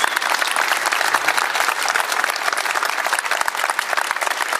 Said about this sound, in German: Also Respekt dafür, dass du dich stellst. Dafür gibt es auch Applaus.